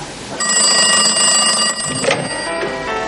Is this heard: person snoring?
no